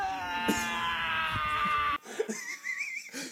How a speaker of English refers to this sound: It's the howl at the end for me because it sounds like he sounds like a 15 year old boy at a football t- game that just got denied a hand job by his first girlfriend.